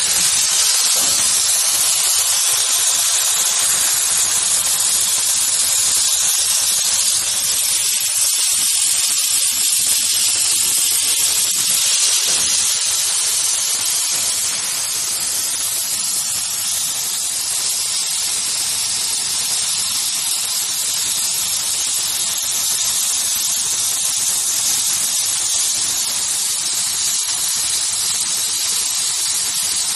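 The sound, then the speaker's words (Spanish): A chemical is sprayed directly onto fabric during fabric processing, a steady, loud, high hiss that runs unbroken throughout, with a faint low rumble beneath and no voices. “y en esta parte, aquí, tenemos el químico aplicándolo directamente a la cola”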